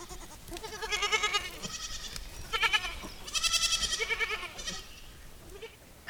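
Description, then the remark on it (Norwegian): Several goats bleat back and forth in overlapping, wavering calls, fairly loud, with short pauses between bursts and no one speaking. “Mens geitene, de har sin egen dialog.”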